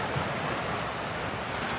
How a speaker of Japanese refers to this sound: 今年海の音を聞くことができなかった方もたくさんいらっしゃるんじゃないかなと思いますので今日は海の音を聞いてもらおうと思います